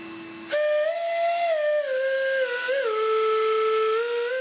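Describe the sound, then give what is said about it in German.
An old vacuum cleaner converted into a flute lets out one long, loud whistling tone that drifts slowly downward in pitch, after a brief low motor hum at the start. Its motor is reversed to blow instead of suck, and its metal tube is made into a flute resembling an organ pipe. No one speaks. “Auch aus einem uralten Staubsauger stellt er ein Instrument her.”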